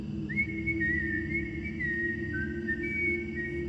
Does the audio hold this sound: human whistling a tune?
yes